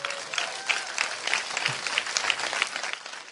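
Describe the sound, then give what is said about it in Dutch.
An audience claps steadily, a dense patter of many hands sustained at an even, moderate loudness throughout, with no talking over it, applauding six people about to be baptized at a church service held in a cinema. “Geef even een applaus aan deze mensen.”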